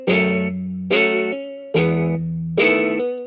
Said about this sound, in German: Und der hat so eine ganz weirde Art gehabt, eine ganz langsame Art, so aufgebrochen, diesen Akkord zu spielen. Es war eine Art Gitarrensound, aber nicht wirklich ein Gitarrensound.